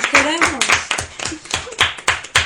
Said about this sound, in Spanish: Bueno, pues vamos a dar un aplauso muy fuerte para el piano y para, y el, para acordeón. el acordeón.